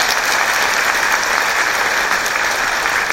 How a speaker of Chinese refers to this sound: 所以呢，我晋升到星光大师哈，给公司，给我的伙伴，给我的家人一个掌声，好不好？